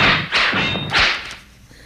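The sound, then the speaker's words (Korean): Two quick whooshing swishes cut through the air one after another, like a whip or blade being swung, each ending in a soft thud, loud with no voices. “무림 고수가 휘두르지 깜짝 놀랐어 지금.”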